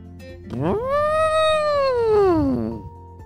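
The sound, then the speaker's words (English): A single loud trumpet from a large elephant, alone, rising sharply, holding a brassy sustained tone for about two seconds, then sliding down and fading. “they heard a sound from Ethan's closet. From a not so very small elephant anymore.”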